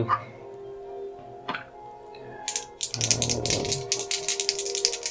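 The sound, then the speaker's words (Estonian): Damage dice, rolled double, clatter and rattle in a rapid burst of sharp clicking taps, starting midway after a quiet stretch with a low hum and a few faint knocks, and continuing to the end. “Nonii, aga siis sa veeretad äh, topelt tämmi täringut mm.”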